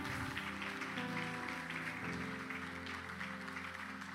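A church audience applauds the Lord, a dense wash of clapping that holds evenly for the whole stretch, with sustained organ-like musical tones ringing underneath.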